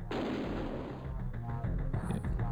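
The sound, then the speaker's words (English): Sounds from the vehicular combat video game Twisted Metal, where cars blow each other up: dense, continuous bursts of gunfire and deep booming explosions over a heavy low rumble, loud, with no voices throughout. “We're gonna hear some sounds of Twisted Metal here.”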